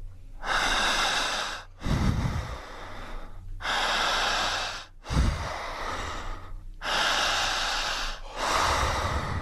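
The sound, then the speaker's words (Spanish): Forceful, deep breathing in a steady rhythm during a group breathing exercise done standing: loud, rushing inhales and exhales lasting over a second each, broken by brief pauses, with no talking. “Más fuerte y más intensa. Sin miedo. Sin temor. Jalando el aire.”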